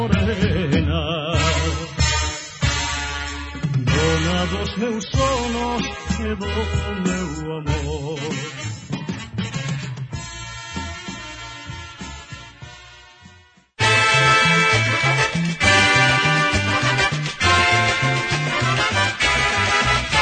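An old-sounding dance orchestra recording plays loud and full with lively brass and rhythm, breaks off abruptly near the middle, then resumes with a brighter, fuller passage; no one speaks.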